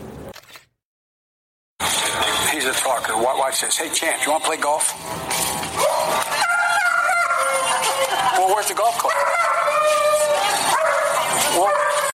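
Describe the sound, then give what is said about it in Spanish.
Champ, the Bidens' German shepherd, barks and yelps repeatedly in excited bursts over a busy backdrop of voices and noise, after a brief moment of silence at the start. “Él ha demostrado varias veces que tiene habilidades oratorias.”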